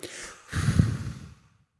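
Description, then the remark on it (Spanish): A soft, breathy exhale rushes out for under a second as people breathe out on a count of three, then everything falls silent as they hold their breath. No talking. “Entonces, a las tres van a sacar el aire y aguantan la respiración.”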